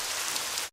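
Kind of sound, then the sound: nature, rain falling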